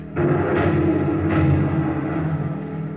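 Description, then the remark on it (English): A phosphorus grenade explodes beneath a German car stopped over it: a sudden, loud blast that rolls into a sustained, heavy roar with crackling bursts, powerful, continuing for several seconds without any voices. “I pulled the pin with my teeth and tossed it back over my shoulder.”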